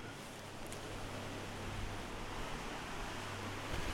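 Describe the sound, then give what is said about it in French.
Steady, continuous rush of water pouring out through a canal lock as the sluice gates open and the water level slowly drops, a dense hiss that swells slightly toward the end, with a faint low hum underneath and no voices. “Et comme l'eau passe, eh bien, le niveau descend doucement et les gens sur leur bateau euh, donnent du mou pour pas que le bateau reste suspendu, quoi.”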